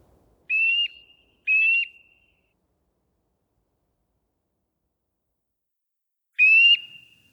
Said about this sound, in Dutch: We gaan nog even één keer luisteren naar het geluid van de boomklever.